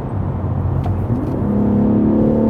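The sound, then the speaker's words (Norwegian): A diesel car engine drones loudly from inside the vehicle, its low rumble climbing steadily in pitch and volume as it revs up hard during kickdown acceleration to about 4,800 rpm, with no voices over it. “Nå skal vi, ta, skal vi avslutte snart her med en liten kickdown, og så ser vi hva som skjer?”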